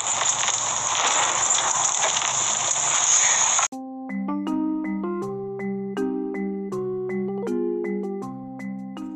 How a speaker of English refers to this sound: I just want to take a couple, few seconds to apologize for all the background notification sounds.